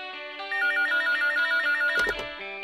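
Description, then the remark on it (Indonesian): A phone ringtone for an incoming call trills in a rapid, repeating electronic pattern, loud, with a brief burst of clatter near the end; no one speaks. “Belum selesai ngedengerin CD-nya, tiba-tiba Aruna nelpon.”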